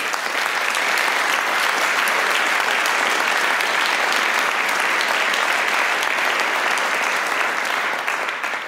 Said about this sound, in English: So I, I want to, to thank Jörg Schneider, who's here today. Maybe we give him an applause for.